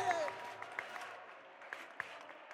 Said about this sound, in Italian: Adesso vi presento un altro rapper fortissimo, si chiama …. Un applauso per …. Più forte!